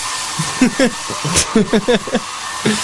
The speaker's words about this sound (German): Es ist, niemand, ist niemand zu verstehen, wenn dieser Föhn an ist. Und ich höre auch gar nichts mehr, ich sehe auch überhaupt gar nichts mehr.